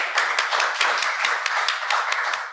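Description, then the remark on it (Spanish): Applause from a live audience for an audience member who correctly named The Crown as one of the most Emmy-nominated series, a dense, steady patter of many hands clapping at an even, fairly loud level with a few sharper claps standing out, and no voices heard. “Exacto, le cago un aplauso para él.”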